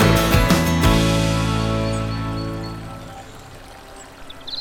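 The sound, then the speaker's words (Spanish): Water of a stream in Córdoba, Argentina, in summer rushes and pours in a loud, steady flow that starts strong and gradually fades over a few seconds, with no voices. “Ese momento en que te descalzas, metes un dedo en el arroyo y...”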